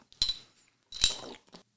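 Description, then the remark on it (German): Two bright glass clinks about three-quarters of a second apart, ringing briefly with a high shimmer, as beer glasses touch in a toast, with no voices. “Cheers. Zum Wohl.”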